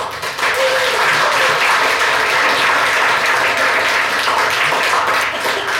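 An audience applauds steadily, a dense wash of many hands clapping at a constant loud level for several seconds, with no speech over it.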